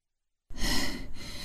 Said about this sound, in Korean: 어깨로 문을 밀어붙여 간신히 다시 닫았다. 태식은 문에 등을 기댄 채 숨을 헐떡였다.